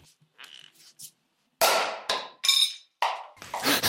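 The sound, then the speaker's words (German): A sound effect of sharp, crackling slap-like hits, a few faint ticks first, then about four loud bursts with a fizzing, sputtering edge, separated by brief gaps. “Das klingt, als hätte die Person, die spricht, eine knallende Ohrfeige bekommen, die so richtig britzelt und spratzt.”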